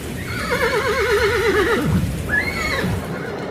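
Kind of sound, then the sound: animal, horse neighing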